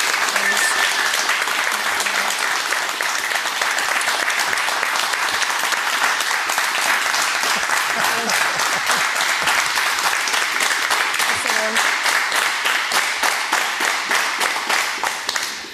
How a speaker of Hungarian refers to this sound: Ha még tapsoltatok volna egy 20 percet, akkor, akkor meg is nem lett volna ennyi melóm.